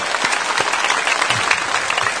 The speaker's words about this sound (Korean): 먼저 창립 35주년과 어, 본당 헌당을 위해서 선도로 행하시면서 우리를 불꽃 같은 농자를 지켜주신 성삼이 하나님께 감사의 박수 드립시다.